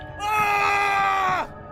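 A loud, sustained scream rings out close by for over a second, held at a steady pitch before sliding down and cutting off abruptly, with no talking around it.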